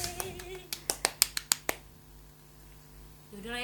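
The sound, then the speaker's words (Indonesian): Around eight sharp hand claps in a quick, fairly even rhythm, growing louder midway and then stopping, followed by a quiet stretch with a low steady hum. “manual aja tepuk tangan ya sayang”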